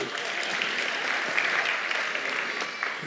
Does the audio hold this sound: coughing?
no